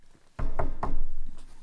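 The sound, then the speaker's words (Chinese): The barber Giovanni knocks on a door: three firm knocks in a quick, even rhythm, each a dull thudding hit, followed by a fainter fourth tap. No one speaks. “阿帕卡鸠原本已经决定取消他的下一场表演了，但是就在这个时候，哎，理发师乔凡尼来敲他的门。”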